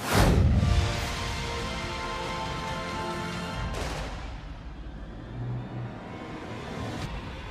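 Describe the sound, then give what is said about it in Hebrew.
Loud fireworks explosions boom out during a fireworks display in Berlin marking 30 years since the fall of the Berlin Wall: a big opening blast followed by two more sharp bursts a few seconds apart, each leaving a long, rolling rumble hanging in the air. “ברלין ציינה במופע זיקוקים מרהיב 30 שנה לנפילת החומה”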